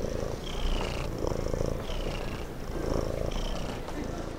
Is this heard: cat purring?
yes